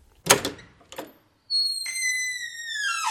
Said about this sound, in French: On entendit soudain la porte du bureau s'ouvrir en hâte.